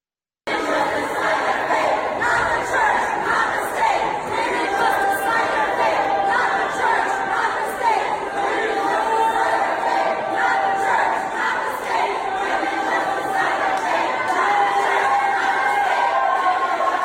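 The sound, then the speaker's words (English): A large crowd of protesters chants and yells continuously outside the chamber during a hearing at the Ohio House, many voices blending into a loud, steady roar with rhythmic shouted phrases, sounding reverberant. “Here are the protesters that were screaming and yelling for almost two and a half hours outside the chamber.”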